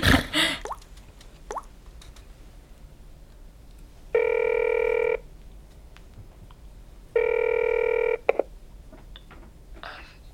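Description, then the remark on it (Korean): A few quick taps and clicks of a phone being dialed, followed by two steady, buzzy ringback tones about a second each, separated by a pause, with no one talking. “전화 좀 해볼까?”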